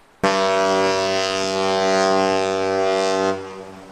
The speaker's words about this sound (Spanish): El barco surca las olas ya cerca de la costa en un día radiante.